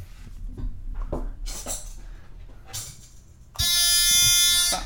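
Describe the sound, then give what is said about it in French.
A loud, harsh wrong-answer buzzer in a true-or-false quiz blares for over a second near the end, a steady raspy tone after some scattered clattering and rustling noises. “ça, c'est le, buzzer de la mauvaise réponse.”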